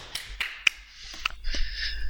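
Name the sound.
brief applause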